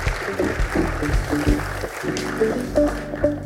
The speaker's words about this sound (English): So we honour you today. So let's give her another clap. That's awesome. Fantastic.